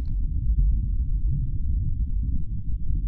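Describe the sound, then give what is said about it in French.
A steady, deep rumble of wind recorded at the surface of Mars, not with a microphone as on Earth, muffled and low-pitched, buffeting continuously for a few seconds with slight gusty fluctuations and no voices. “eh ouais, Pompidou, du vent enregistré à la surface de Mars.”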